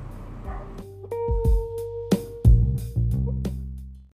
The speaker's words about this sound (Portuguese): Gente, acho que vocês ouviram os cachorrinhos latindo.